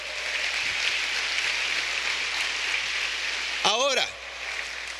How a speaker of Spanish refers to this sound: Sí, dale un aplauso, por favor.